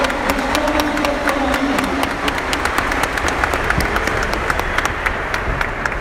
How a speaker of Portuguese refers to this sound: Parabéns a cada um de vocês, uma forte de palmas para vocês que estão aqui hoje.